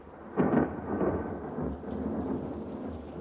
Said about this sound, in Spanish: Fuera hay tormenta.